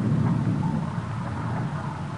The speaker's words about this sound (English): The storm is just about over now.